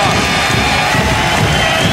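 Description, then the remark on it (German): A dense, steady roar of a large crowd of spectators at a handball semifinal between TBV Lemgo and THW Kiel, loud and continuous with a wash of overlapping voices and cheering, echoing in a packed sports hall. “Zumindest was die Zuschauer hier angeht. Stimmung ist da.”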